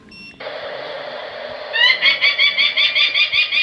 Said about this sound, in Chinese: 其实后面有写到，就是有比如说像现在听到这个白腹鷦鸟啊，嗯、听到的这个声音呢，就是它在宣示领域的声音，给大家听一下。